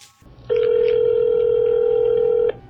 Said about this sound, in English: I dialed the first of a few possible phone numbers that I tracked down